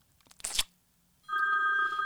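A telephone rings as someone calls back: a brief rustling burst, a short pause, then a steady, fairly loud electronic ringtone tone holding on a bright, buzzy pitch until the end.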